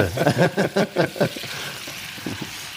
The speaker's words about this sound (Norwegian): Hør på denne lyden her, da. Kona mi klager på at jeg sier 'hør på den lyden' hele tida. Det er jo en fantastisk lyd. Ja, det, jeg Med smør og karamell som freser.